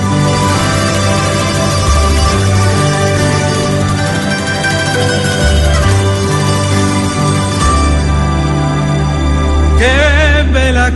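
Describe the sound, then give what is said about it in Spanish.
A recorded song sung in Italian plays loud and up front over full, steady instrumental accompaniment, the voice swelling into a long, wavering held note near the end. “Dos, con estas canciones donde graba un disco y video y suena así,”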